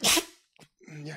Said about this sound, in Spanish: Diablo, me van a estornudar de momento. Dale, estornuda.